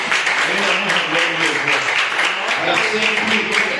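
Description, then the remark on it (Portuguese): A church audience applauds for the Lord in a steady, dense patter of clapping that holds for several seconds, with murmuring voices mixed in underneath. “Agradeço a oportunidade e as palmas do Senhor.”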